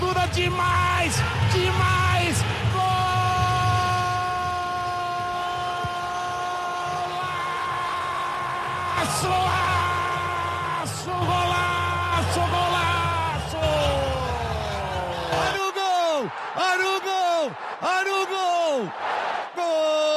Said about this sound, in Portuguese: Golaço! O grito de gol né? é o momento extremo de uma narração esportiva, do futebol.